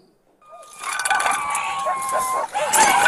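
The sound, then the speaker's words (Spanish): High, drawn-out whimpering cries from dogs trapped in a burning motorhome in a restaurant parking lot in Colorado, where police and firefighters rescue 14 dogs; a thin sustained whine rises over a rough, crackling background that stays fairly loud throughout the few seconds. “En este video se escucha el lamento de los animalitos y se aprecia el humo que sale del vehículo en llamas en el estacionamiento de un restaurante.”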